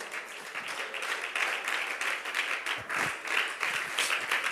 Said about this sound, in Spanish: Bríndele ese aplauso más lindo al Señor.